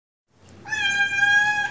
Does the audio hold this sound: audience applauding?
no